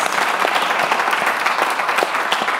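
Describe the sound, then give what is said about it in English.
A group gives a round of applause for facilitator Winnie Dunn at a morning SBS Voices panel session, many hands clapping in a dense, steady patter of sharp claps that holds a constant loudness for a few seconds with no voices. “And uh, round of applause for Winnie Dunn, who's facilitating us”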